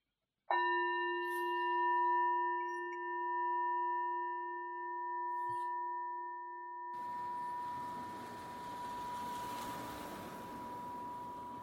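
meditation chime ringing

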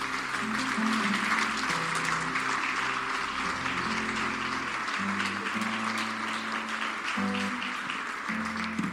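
audience applauding

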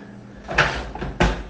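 door being opened

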